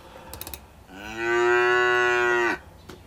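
A single long cow moo, a steady low-pitched drone with rich harmonics held for about a second and a half, loud against a quiet background with a few faint clicks.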